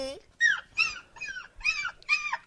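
A dog named Scooby whimpers and yips in a quick run of five or six short, high-pitched whining cries, each bending in pitch, with brief gaps between them.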